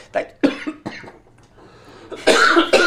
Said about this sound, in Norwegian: Nå kom han hosten.